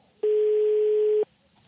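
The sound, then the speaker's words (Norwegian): A single steady telephone line tone sounds for about a second as a call is placed to a viewer of the TV series Mammon. It is a loud, pure mid-pitched beep that starts and stops abruptly against quiet background, with no talking. “Mange av disse igjen har hyllet, fortvilt, vitsa, gitt opp eller rost serien i sosiale medier så hva med å ringe noen av dem for å høre hva de syns nå?”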